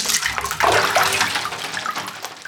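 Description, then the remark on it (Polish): Water sloshes and splashes in a bathtub filled with ice and water, from about six bags of ice, as a woman sits in it and shifts around, fairly loud, with a continuous churning swell and no voices. “I tam weszłam do środka, bo chciałam po prostu wiedzieć, jaki to jest dźwięk, jak się jest tam w środku.”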